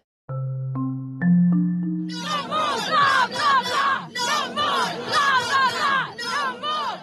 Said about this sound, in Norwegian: Hvordan er det å være klimaforhandler når, eh, når folk står utenfor og roper 'no more bla, bla, bla'?